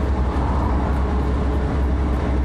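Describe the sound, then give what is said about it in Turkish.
A steady, loud vehicle rumble with dense low-frequency road noise continues without a break, like a car moving along a road, driving near Susurluk, Turkey, on the way toward İzmir. No one speaks. “O kadar saattir. Arabanın üstündeyim yani.”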